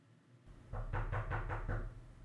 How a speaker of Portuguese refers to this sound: Agora bater à porta.